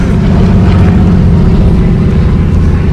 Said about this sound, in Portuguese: Só que, deixa passar o avião.